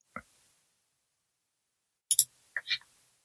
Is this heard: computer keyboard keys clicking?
yes